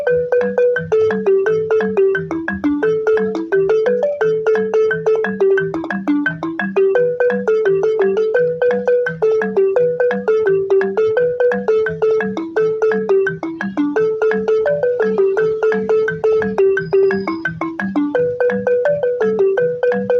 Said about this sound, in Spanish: ¿será que te puedo pedir que me toques lo más complicado que sabes en el balafón?